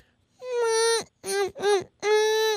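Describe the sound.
A person vocally imitates the insistent, hungry meowing their cat Pancakes makes when it wants food: three or four drawn-out, whiny cries in quick succession, fairly loud, with no other talking.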